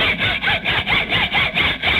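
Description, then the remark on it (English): Rhythmic hacksaw strokes rasp back and forth, about eight quick, even cuts in two seconds, with a bright, gritty edge and steady loudness and no voices. “put down that hacksaw and use the door.”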